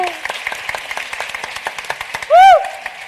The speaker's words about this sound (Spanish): Sí, un aplauso.